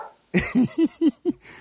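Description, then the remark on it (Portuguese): Dogs bark in a quick, even run of five short, mid-pitched barks, fairly loud and with no talking over them. “E agora eu vou contar pra vocês, se os Vai. cachorros deixarem.”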